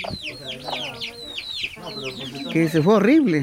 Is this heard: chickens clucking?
yes